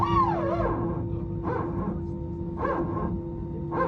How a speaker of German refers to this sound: Das ist die sogenannte PTU, die Power Transfer Unit, und die ist für den Notfall gedacht, nämlich wenn eines der beiden Triebwerke ausfallen sollte